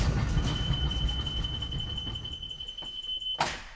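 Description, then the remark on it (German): A small rail car runs along a darkening high-voltage cable tunnel track, a dense low rumble with a thin steady high whine above it, ending in a brief sharp clack. “Die Bahn kann die Strecke auch automatisch abfahren.”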